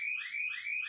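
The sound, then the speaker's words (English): A shrill electronic alarm in a radio station studio, set off during a storm, blares steadily, its high-pitched tone warbling in quick repeated sweeps about three times in under a second, with no voices over it. “Currently, there is an alarm going off.”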